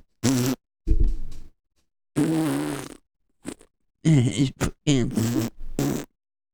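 A series of about seven loud, buzzy farting noises in quick succession, some drawn out and some short and sputtering, separated by brief silences, with no talking.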